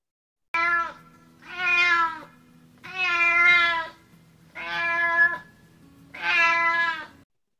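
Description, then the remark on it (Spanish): A black female cat meows wildly in front of a broken jukebox, five long, loud, drawn-out yowls in steady succession with brief pauses between them, with no one talking. “De nuevo esa gata negra maullando como loca frente a la rocola descompuesta.”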